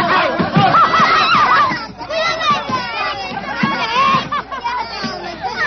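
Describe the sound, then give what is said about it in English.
A rowdy crowd brawling and scuffling, hitting each other and dragging each other out, many voices shouting and yelping over one another in a loud, continuous commotion with sharp bursts of noise. “They're all hitting each other with gunshots. Here, you conjurers. They're all going away. They're oh, dragging each oh, other out.”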